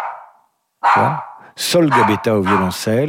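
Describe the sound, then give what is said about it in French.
A Cavalier King Charles spaniel gives a short, sharp bark or two near the start, clear, before a person begins speaking over the remainder. “Si le chien réclame, hein, parce qu'un cavalier King Charles, ça n'attend pas.”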